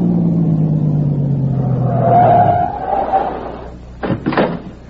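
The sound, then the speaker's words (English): A car engine winds down in pitch as the vehicle slows and comes to a stop on a road that dead-ends at a cave entrance, settling into a low idle, followed by a couple of sharp clunks like a door. “There's a car. It stopped.”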